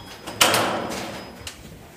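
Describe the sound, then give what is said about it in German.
An office door on an upper floor, opened with a raised access badge, releases and swings open with a sharp clunk and a fading rush, then a softer click about a second later; a thin, steady electronic tone hums faintly underneath until that click. “Wir stehen vor einer Tür, wo Karin Fischer den Badge muss anheben muss.”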